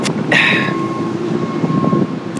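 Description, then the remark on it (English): A loud slurping sip of Kona Coffee Purveyors coffee taken into a microphone, a short airy burst of about half a second, followed by quiet room noise with a faint steady hum. No one speaks. “So I'll, I'll give a nice loud sip into the mic.”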